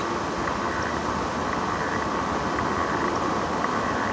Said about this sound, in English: train noises in the background.